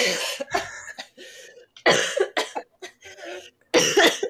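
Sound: coughing fit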